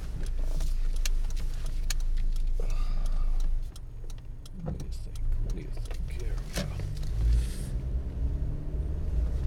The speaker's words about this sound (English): There's a lot of traffic today. And I am running a bit late.